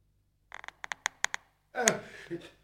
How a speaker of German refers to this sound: Der Mann zuckt unter dem knarrenden Geräusch zusammen.